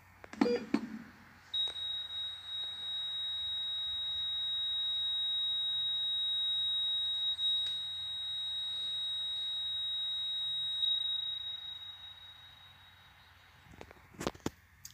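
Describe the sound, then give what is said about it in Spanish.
A heart monitor's steady, high-pitched, static flatline tone, signalling death, holds unbroken for about nine seconds, preceded by a brief beep and ending in faint clicks, with no one speaking. “Uno nos enseña que estamos vivos y el otro que acabamos de morir.”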